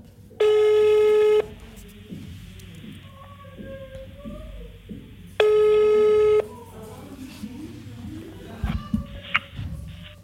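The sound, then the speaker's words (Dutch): Two long, steady electronic ringback tones of an outgoing call placed through an Instagram profile, each about a second, separated by a pause, with a murmur of background voices and noise continuing between and after the rings. “Die kan je gewoon bellen via zijn Instagram-profiel. Dus ik bel hem op.”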